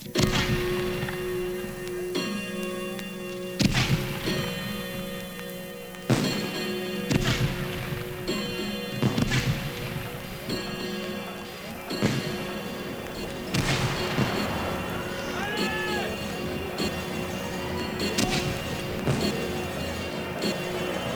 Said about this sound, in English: You know the fun of watching fireworks is built pretty much around the a cappella vocal approval that you do with or after each explosion. All right? We provide the fireworks. You do the oohs and ahs.